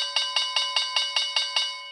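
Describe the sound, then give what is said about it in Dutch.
A bright bell marking the start of a question-round segment rings in a quick, steady series of about eight evenly spaced strikes, each note ringing into the next, clear with no talking over it. “Ja, daar klinkt hij weer. De bel van de rondvraag.”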